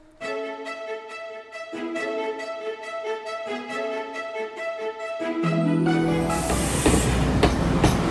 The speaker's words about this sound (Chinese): 奇怪，我小鹦鹉怎么一直听到火车的声音呢？难道我们家旁边有新铁路，有火车要经过了吗？